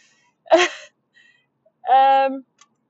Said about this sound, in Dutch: Dus als je mij zo direct hoort snuffen, dan moet je dan maar het, eh, het, ja, eh, door eh, leuk voor naar water in Dus ik kan er niks aan doen.